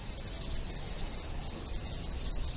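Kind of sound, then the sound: insect, cicada chirping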